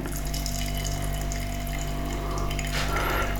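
Tea pours steadily into a cup, a continuous trickle of liquid over a low background hum, swelling briefly louder near the end; no one speaks.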